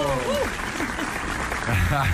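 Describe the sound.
Steady applause from a group, a dense patter of clapping that runs the whole time, with some voices calling out and talking over it.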